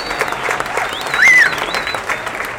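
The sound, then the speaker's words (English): An audience claps steadily in a dense, sustained burst of applause, with a sharp whistle rising over the clapping midway through and some faint cheering mixed in. “Everybody give Rennie a round of applause.”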